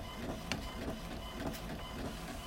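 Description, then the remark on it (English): A printer runs steadily, its mechanical whirring and clicking repeating in a regular rhythm of short strokes about every half second, with no voices present. “I'm gonna print it out and read it while I'm on the bus.”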